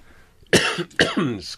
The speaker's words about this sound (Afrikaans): daar begin ek met 'n hoes sommer pessimisties.